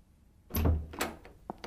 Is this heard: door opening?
yes